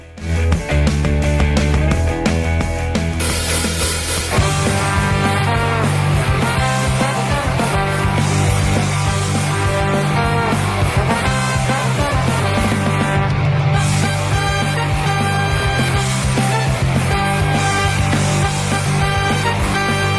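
A full band plays a song, loud and dense throughout, with steady drums, bass and layered guitars driving forward without pause and no talking over it.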